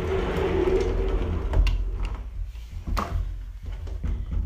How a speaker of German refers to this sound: Okay, warte, ich mach mal kurz meine Tür zu.